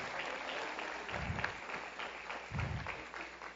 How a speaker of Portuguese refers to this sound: E você vai caminhar e vai chegar lá, e quando chegar você vai entrar rasgando, aplaude a Deus, aplaude.